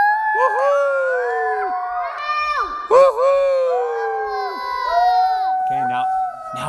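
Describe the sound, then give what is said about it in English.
Several people hoot in a tunnel in overlapping, swooping voices, imitating owl calls with long rising and falling tones, fairly loud, followed by a brief breathy pause and more hooting. “Okay, now we can hoot back.”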